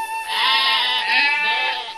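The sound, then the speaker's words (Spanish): A flock of sheep taken to graze by the Zapincu river bleat in a steady, wavering chorus of nasal cries that swell and overlap across the two seconds, fairly loud and with no talking over them. “La hija pequeña de esta familia era la que se ocupaba del cuidado de las mismas, llevándolas a pastar por el río de Zapincu donde había agua y pasto en abundancia para su rebaño.”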